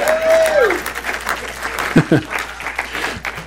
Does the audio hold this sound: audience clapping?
yes